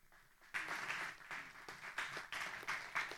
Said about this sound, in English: That's the most clapping for fasting we've ever heard.